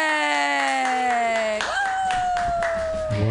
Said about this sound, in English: All right, guys. Our last comedian of the evening. We have time for him. Clap your hands together wildly